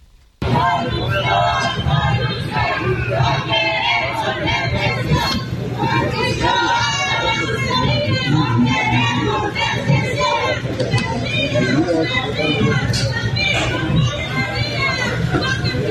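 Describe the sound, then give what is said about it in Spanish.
A large crowd of protesting teachers roars and shouts continuously, many voices overlapping in loud, agitated chanting and yelling with no break, in a Tuesday morning confrontation with riot police trying to stop them advancing on the Palacio Nacional. “Bueno, la protesta que usted escucha comenzó desde las 6 de la mañana de este martes.”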